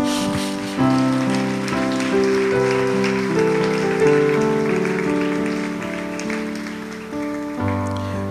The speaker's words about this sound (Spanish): Dele un aplauso.